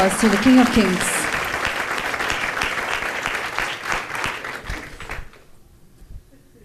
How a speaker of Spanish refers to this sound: ese fuerte aplauso al Rey de Reyes.